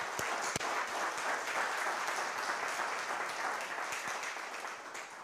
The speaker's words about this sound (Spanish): Dele un aplauso al Señor grande por eso.